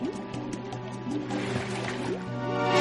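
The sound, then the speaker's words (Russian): Very hot water bubbles and gurgles steadily as it rises and fills up, with a rising, resonant tone; the sound grows gradually louder toward the end and no one speaks. “Но сегодня вода стала очень горячей и начала подниматься.”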